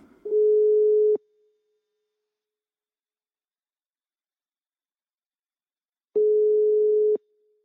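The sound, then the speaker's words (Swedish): A telephone ringback tone while a call is placed to a marketing expert at the organization Almi: two steady, one-second electronic beeps, clear and fairly loud, separated by about five seconds of silence, with no voices. “Och eftersom de är vår samarbetspartner, ja då tog jag chansen att ringa henne.”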